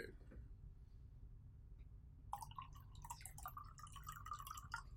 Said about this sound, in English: That is water. hey, we're in our ASMR bag heavy tonight, boy. We're in our shit. Aquafina. I think it's tap. the ra- the rarest of tap waters. Um, artesian tap.